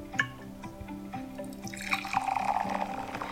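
Prosecco sparkling wine poured into a glass for a toast: a few light drips and taps at first, then a steady, fizzing pour that rises in pitch as the glass fills, fairly quiet throughout.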